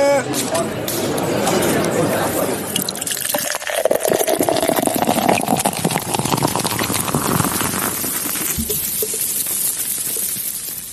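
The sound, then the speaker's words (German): Draught beer pours from a Heineken tap in a steady, hissing gush for several seconds, its foamy rush rising slightly in pitch as the glass fills, then cutting off. “Man hat vielleicht jetzt schon die Heineken-Zapfanlage wieder gehört.”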